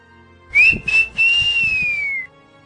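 A person whistles one long, clear note that rises briefly and then slowly drifts downward, lasting under two seconds, with faint low thumps underneath.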